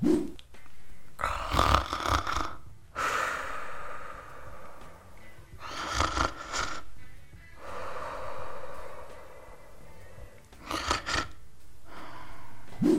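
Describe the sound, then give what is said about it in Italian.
A voice imitates loud snoring: several long, rasping inhaled snorts spaced a few seconds apart, each followed by a softer breathy exhale, alone with no talking. “Vi è mai capitato di dormire nella stessa stanza con qualcuno che russa?”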